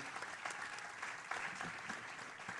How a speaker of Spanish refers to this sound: Vamos a darle un fuerte aplauso a nuestros pastores.